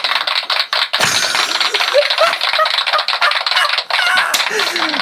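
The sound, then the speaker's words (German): A burst of canned applause played from an applause app: dense, crackling clapping from a crowd that runs steadily for several seconds, with a few brief dips, and no voices over it. “Und, Aber wir haben ähm, jetzt wirklich die Applaus-App, oder?”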